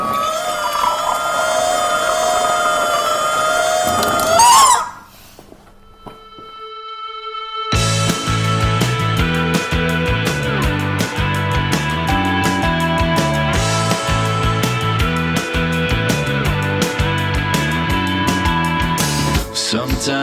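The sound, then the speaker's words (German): A music track plays loudly: sustained, wavering tones open, then a brief near-silent gap, and a steady beat-driven groove with layered instruments kicks in and continues to the end. “was hören wir jetzt an Musik?”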